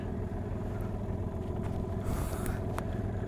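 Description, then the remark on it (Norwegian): A steady engine rumbles continuously with a dense low-frequency drone and faint higher hiss, holding an even level throughout without any talking. “Kjenne den der eh, motorlukta og det varmer i ansiktet.”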